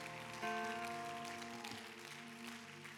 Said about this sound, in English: Come on, someone give your hand clap to Jesus.